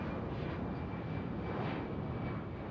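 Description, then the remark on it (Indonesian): An airplane engine drones steadily overhead, a broad continuous roar with a faint high whine, holding at a fairly loud level throughout with no voices. “Dan saat itulah pertama kalinya Amelia terkesan dengan pesawat terbang.”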